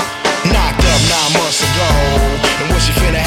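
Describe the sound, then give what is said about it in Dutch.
A hip hop track plays loudly, with a heavy, punchy bass beat hitting in a steady rhythm beneath layered melodic vocals. “Ik zeg grootste hit, dat is natuurlijk de ….”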